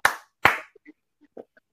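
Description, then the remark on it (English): Two sharp, loud hand claps about half a second apart, made to trigger a clapper, followed by a few faint scattered clicks and taps. No one speaks. “Okay, the clapper was in my room, and I would do.”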